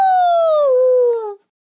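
A wolf howls once, a clear, loud, tonal cry that slides slowly downward in pitch over about a second and a half before cutting off, followed by silence.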